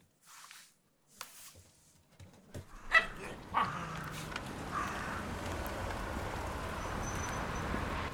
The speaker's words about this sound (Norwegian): Er det dine hunder? Det er mine, ja. Hva slags hunder er det? Det er maltesere. Ja. Og han er happy, og så er det vel Han er 13 år, og hun er 9 år. De er helt avhengige av hverandre.